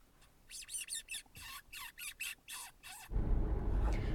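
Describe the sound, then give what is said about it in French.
A person makes a rapid series of high, squeaky kissing sounds, imitating a wounded rabbit or mouse, about ten short squeaks, followed by a burst of low rumbling noise, made after spotting a fox's eyes in vehicle headlights on a plain. “J'ai imité le bruit du lapin blessé, on va dire, ou alors de la souris.”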